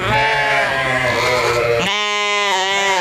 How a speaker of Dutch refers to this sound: Wat een prachtige schapen zijn dat toch, hè, die Tesselse schapen. Schitterende zijn, beesten. Dit, dit, zijn echt, dit zijn echt prachtige schapen